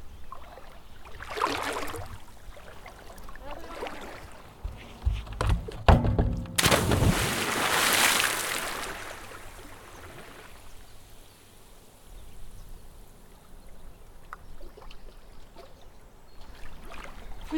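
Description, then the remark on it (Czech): A few soft thuds and creaks, then one hard thump and a loud splash as someone jumps off a plank into cold water while holding the recorder, followed by gentle sloshing and dripping as the water settles. “Já jdu skočit I s tím nahrávadlem. Z toho prkna.”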